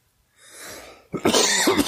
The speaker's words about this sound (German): Okay, du musst husten, wolltest du mir gerade mit deinem genau. Zeichen meinen.